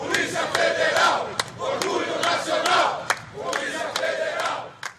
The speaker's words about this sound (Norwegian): Det føderale politiet er nasjonens stolthet, roper motorsykkelgjengen foran porten til justispalasset i Coriciba.